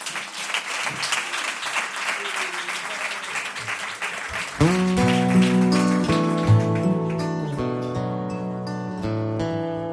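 At a Cadena 100 radio live session at the Jarro Café in Madrid, an audience claps steadily in a dense, crackling burst of applause; about halfway through, instrumental music with sustained chords starts while the clapping continues underneath and slowly thins out.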